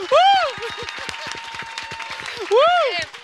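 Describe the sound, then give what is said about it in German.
A burst of audience applause for a correct quiz answer, dense steady clapping throughout, with two loud rising-and-falling vocal whoops at the start and near the end. “Applaus.”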